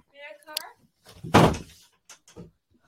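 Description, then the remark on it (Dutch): A door is pulled and slammed shut with one loud bang midway, followed by a few softer knocks and rattles. A brief voice is heard just before the slam. “Er wordt hier ondertussen met deuren getrokken”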